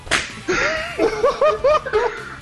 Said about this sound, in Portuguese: Eu sou o Smiling Stalker e eu me sinto o poder do meu chicote!